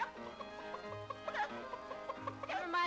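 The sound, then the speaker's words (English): Over a steady musical accompaniment, a voice imitates a hen's clucking in quick, bouncy bursts, with a possible rooster-style crow near the end, moderately loud. “my little hen goes. my little rooster goes cockadee doody doodly doodly doodly doo.”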